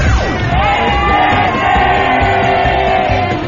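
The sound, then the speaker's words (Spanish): A large crowd shouts the traditional "grito Godínez" together at the Ángel de la Independencia in Mexico City, in one sustained, loud roar, many voices blending into a dense collective yell that holds steady for a few seconds. “Queremos que te unas al tradicional grito Godínez desde el Ángel de la Independencia.”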